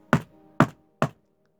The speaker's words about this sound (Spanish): El subastador golpeó por fin el mazo.